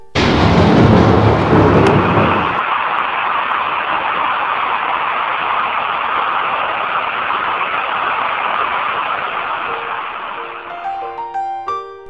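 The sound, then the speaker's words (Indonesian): A deep, loud rumble of thunder opens, then fades into a steady, dense roar of very heavy rain falling on an overcast day, at a small coffee shop, that continues throughout, with a few faint tonal notes surfacing near the end. “Lalu hujan turun amat deras.”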